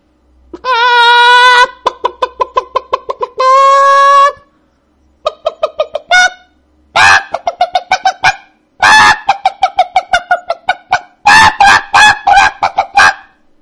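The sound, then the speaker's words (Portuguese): A voice imitates a chicken, loud, alternating drawn-out squawks with quick runs of staccato clucks in uneven bursts, with no other sounds around it. “Presta atenção, imitação de galinha, silêncio.”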